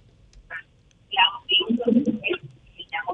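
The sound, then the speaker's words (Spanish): Garbled, crackly voice of a caller on speakerphone coming through a poor phone connection with interference, broken into choppy bursts with hiss and distortion so no words are clear, fairly loud. “Creo que no llega a la ciudad de Santiago, pero hay interferencia.”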